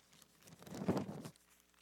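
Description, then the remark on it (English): A soft, papery rustle of many Bible pages being turned at once as people look up a passage, swelling to a brief peak of crinkling before fading away, fairly quiet and with no one talking. “I love to hear the pages turn to.”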